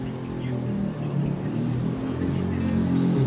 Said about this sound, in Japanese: 完全に米のすごいコメント中に バイクがすごいバイクの音で一切聞こえてないてす、うん、やっぱり好かれてますよねバイクに